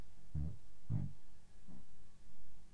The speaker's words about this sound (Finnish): Tai sitten nyt tulee pieru.